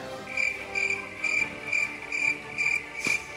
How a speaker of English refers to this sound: Crickets. Crickets.